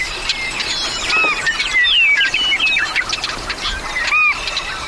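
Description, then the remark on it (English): A busy chorus of meadow birds, including willets, swallows, snipes and wrens, calling and chirping at once in a meadow, overlapping whistles and trills, continuous for the whole stretch with no voices. “I was oblivious to this whirling world of willets, swallows, snipes, and wrens.”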